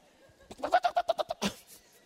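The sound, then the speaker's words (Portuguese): A person's voice imitates a helmeted guineafowl call: a quick, rhythmic burst of about eight harsh, clucking pulses ending in a louder squawk, fairly loud. “Aí você fica ouvindo a vida do outro que está voando igual a águia, você está igual a galinha da Angola, ó.”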